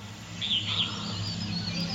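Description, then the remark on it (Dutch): A dense dawn chorus of birds in a jungle at five in the morning while it is still dark, with high chirps and trilling calls rising over a steady wash of insects and forest hum, fairly faint and continuous. “Hoewel de vogels al beginnen te fluiten is het om vijf uur ochtends nog donker in de jungle.”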